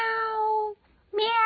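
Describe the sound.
A person mimics a cat, voicing two drawn-out, tonal meows separated by a brief silence; the first slowly falls away and the second starts sharply and holds steady, both fairly loud.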